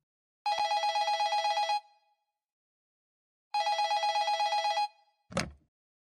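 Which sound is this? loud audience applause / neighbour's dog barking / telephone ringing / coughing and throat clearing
telephone ringing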